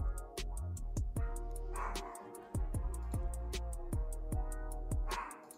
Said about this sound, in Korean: 야, 개 짖는 소리 좀 안 나게 해라.